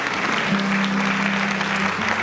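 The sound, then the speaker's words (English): A church audience claps steadily as a clap offering to the Lord, a dense, even wash of many hands that holds at full strength throughout, with a low sustained tone sounding underneath for most of it. “Come on, somebody give the Lord a clap offering for this.”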